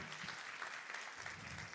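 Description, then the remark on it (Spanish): An audience at a sermon claps steadily, giving applause to the Lord, many hands producing a dense, continuous patter of applause that holds at an even level throughout, with no voices standing out above it. “Alguien que esté aquí, que le dé una, alguien que esté despierto, que le dé un aplauso al Señor.”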